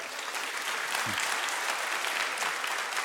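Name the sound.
audience clapping hands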